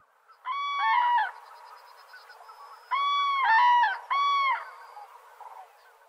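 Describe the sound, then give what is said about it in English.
A flock of cranes wintering near Moheda Alta, Spain, calls at once in loud, bugling bursts, with overlapping trumpeting cries in three clusters separated by brief pauses, set against a faint hiss of background noise. “They do so by the tens of thousands amidst a great din.”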